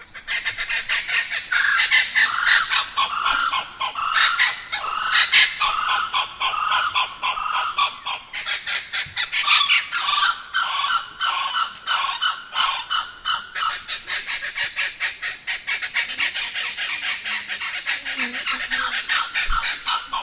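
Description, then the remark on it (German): A blue-winged kookaburra calls in a long, raucous series of harsh, cackling and squawking notes, loud, repeating in rapid bursts for the full stretch with no talking. “Also das ist der Blue-Winged Kookaburra.”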